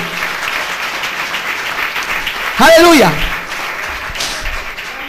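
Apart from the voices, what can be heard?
audience applause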